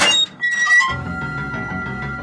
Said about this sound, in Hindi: छत का लोहे का दरवाजा खोलते ही